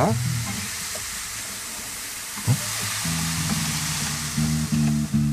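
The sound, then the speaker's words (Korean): A steady, hissing wash of glass beads rolling inside an ocean drum, an instrument made to sound like waves, swells and surges like surf, fairly loud, while low sustained musical tones join in during the second half. “안에 유리 구슬을 넣어서 파도 소리가 어. 나게 하는 악기입니다.”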